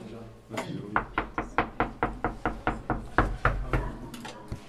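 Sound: knocking on a door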